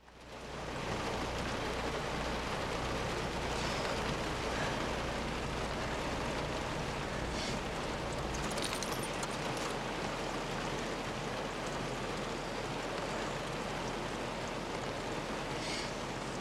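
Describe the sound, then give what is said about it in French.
Steady, dense rain drums on the roof and windows of a broken-down car in a scene from the film Sombre, a continuous hiss with a low rumble underneath, fairly loud throughout, with no voices. “Nous allons écouter un extrait de Sombre, la séquence de rencontre entre Claire et Jean sous la pluie dans une voiture, alors que celle-ci, Claire, est tombée en panne.”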